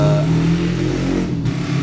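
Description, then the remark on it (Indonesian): A motorcycle engine revs, a loud, steady low rumble with strong harmonics that shifts pitch slightly as it throttles, filling the whole short stretch with no talking. “mot motor kayaknya ngikut kali ya dia mau jadi bintang tamu kali ya.”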